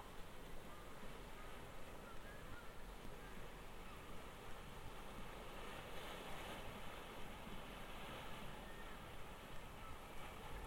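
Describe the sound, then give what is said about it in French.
Waves crash on a shore in a continuous, steady roar of surf, with no distinct individual breakers standing out and a windy hiss over everything. No voices are heard. “Les vagues se fracassant sur la grève.”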